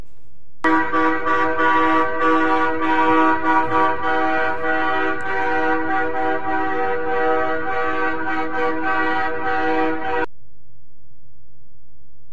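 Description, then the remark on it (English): Loud, sustained blare of many truck and car horns from a huge trucker convoy in Ottawa, honking together for about ten seconds, overlapping tones layered into a continuous chorus, then cutting off abruptly into quiet. “They organized this gigantic trucker convoy.”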